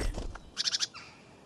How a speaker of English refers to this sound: Um, birds are busy and it's just lovely